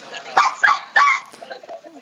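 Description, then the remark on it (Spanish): A dog barks three times in quick succession, sharp, over a murmur of background voices in a bar. “Uy, ¿se ha, metido aquí el perro de M o algo.”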